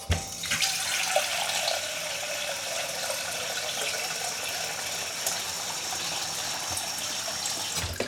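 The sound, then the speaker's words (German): Water runs steadily from a tap into a bowl, a continuous hiss and splash that fills the whole stretch without pause, with no voices present. “Dann stell doch bitte eine Schale mit Wasser für den Drachen raus.”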